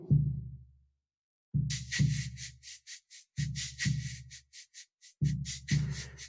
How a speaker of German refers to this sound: Je nachdem, über was du dir das gerade anhörst, hörst du vielleicht diesen Trommelrhythmus, der da läuft. Dum, dum, dum, dum, dum, dum.